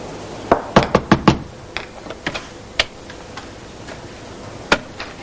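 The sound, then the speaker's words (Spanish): Knocking on the door of the main house before entering: a quick burst of about five sharp raps, followed by scattered softer taps and one more firm knock near the end, with no voices. “Llama antes de entrar.”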